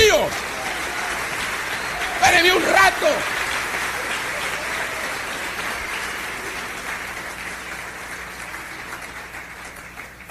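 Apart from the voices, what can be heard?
audience applause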